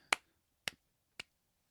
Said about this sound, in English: And to come back and then just do tricks like that, dude, yes, golf claps.